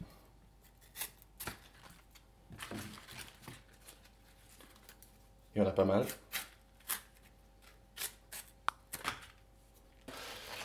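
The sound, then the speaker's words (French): Crisp cutting and tearing of chard leaves as the white ribs are cut out in a V shape, in short irregular bursts, with one louder rustling stretch midway, while a person talks briefly between the cuts. “Ensuite, on essaye d'enlever toute la côte, donc toute la partie blanche, en formant une sorte de V pour ne pas en laisser coller à la feuille.”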